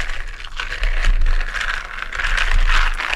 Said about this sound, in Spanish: Eh, vamos a completar el vaso con prosecco y con una cucharita vamos a mezclar levemente. La idea es no romper tanta burbuja